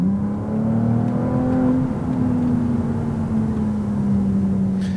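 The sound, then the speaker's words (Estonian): A Ferrari sports car's engine rumbles steadily as it drives out of Varkla, a loud, continuous low drone whose pitch rises slightly and then eases back down over a few seconds, with no voices. “ma loodan jah, et, et ka see müdin tuleb siit nüüd läbi natukene”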